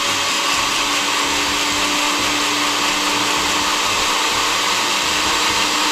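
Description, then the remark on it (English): A blender runs steadily for the whole stretch, blending ice into a slush for a drink, a loud, dense motor whir with a constant hum and a gritty, churning texture on top. No one speaks over it. “I'm gonna turn on the blender for a hot second.”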